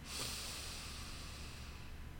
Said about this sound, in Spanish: Y vamos a cambiar la respiración. Inhala por la nariz.